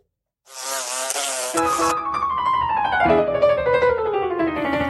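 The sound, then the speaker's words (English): Flies buzz loudly and continuously after a brief silence, their droning hum swelling, with the pitch of one fly sliding steadily lower as it passes. “Another long, tough fly season is right around the corner.”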